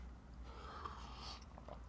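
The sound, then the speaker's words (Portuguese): Someone takes a quiet sip of a drink, with soft wet mouth sounds and a few small clicks and swallows over a low background hum. “Golinho de …”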